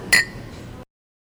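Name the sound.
glasses clinking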